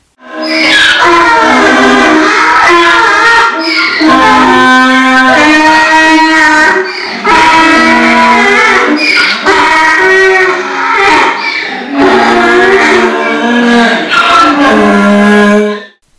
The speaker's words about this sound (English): Now, that sound for the uninitiated is our herd of donkeys braying in the barn. We'd like to think they're singing, although we'll suggest they leave it to the professionals.